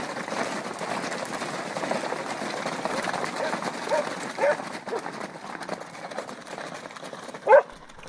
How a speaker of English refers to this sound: The rumble of hoofs shook the pavement as the clamor of wagons filled the streets. The stink of the horses and riders evident even in the winter chill.